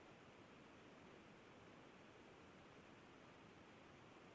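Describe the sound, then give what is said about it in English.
A Skype call drops out, leaving a steady, even wash of static-like hiss with no voice at all, holding at one level for the full few seconds. “Yeah, you're you're cutting in and out me.”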